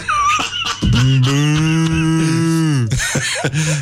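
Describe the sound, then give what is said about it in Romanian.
A person imitates a cow with a blocked nose mooing, in a nasal, stuffed-up tone: one long, loud, sustained low note for about two seconds, then a shorter honk. “Adică ia să vedem cum, uh, cum uh, mugește o vacă care are nasul înfundat”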